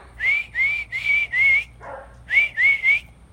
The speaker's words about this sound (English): That freaking dog. Why? Like, why does this have to happen when I start recording?